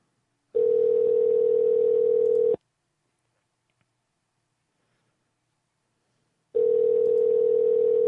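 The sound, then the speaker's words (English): A telephone ringing tone heard down the line: two steady, buzzy two-second tones separated by a long silent gap, clear and moderately loud, with no voices. “Oh God, that ringing in the air, man, with the ringing telephone.”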